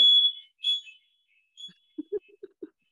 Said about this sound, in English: like i don't know what that was uh, smoke alarms